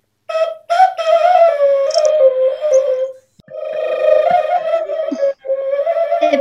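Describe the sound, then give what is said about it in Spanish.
A bird-call whistle made of clay, from the north, sounds loud, producing two long warbling, trilling phrases with brief breaths between, imitating birdsong like the crowing of roosters. No one speaks. “parece como el canto de los gallos. Exacto. Mm. Imita el sonido de aves.”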